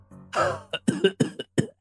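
A man, bent over, coughs several times in quick, harsh bursts: a longer rasping cough followed by four or five short, choppy coughs, moderately loud with no speech.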